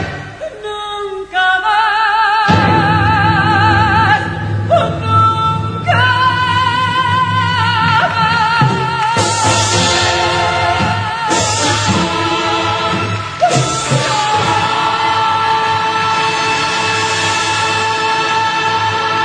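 A live tango song with full orchestra: sustained strings and melodic lines over steady bass, loud and continuous throughout, with a vocal line woven into the music and no spoken talk.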